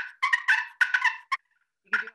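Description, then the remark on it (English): Aggravated turkey purrs made on a carbon-tipped turkey call, imitating jakes: harsh, raspy rolling bursts strung together, then a short chirp, a pause, and one final rattling purr. No talking. “if you want to get into the aggravated purrs where you want to act like um, jakes or whatever you can do some of that”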